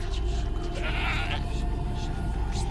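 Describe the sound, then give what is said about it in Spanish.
A goat lets out a single wavering bleat over a steady low rumble of background noise with no one speaking. “La lechuza hizo una reverencia, nos pidió que dejásemos que la cabra se acomodase junto a la hoguera, nos incitó a dar vueltas alrededor.”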